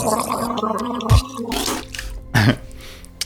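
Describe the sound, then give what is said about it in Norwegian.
Someone takes a drink of water, with two distinct gulping swallows about a second apart, fairly loud against a quiet, faintly noisy background. “um, du, får, du, får, deg litt vann.”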